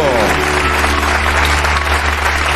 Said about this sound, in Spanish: Este aplauso es para esta canción. Espectacular.